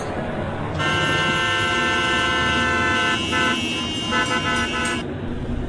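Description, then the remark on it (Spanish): Heavy city traffic rumbles at La Minerva while a loud vehicle horn blares in one long, sustained blast for several seconds before cutting off, leaving the engine and road noise. “Y ya ves que aquí en la Minerva se pone un tráfico bien feo.”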